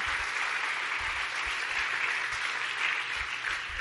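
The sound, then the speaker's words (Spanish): A church audience applauds in praise of the Lord, a dense wash of many hands clapping at once that holds an even, sustained level throughout with no voices rising above it. “Yo de usted le daba el mejor de los aplausos.”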